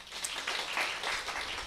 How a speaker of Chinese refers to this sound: 哎，来鼓掌一下。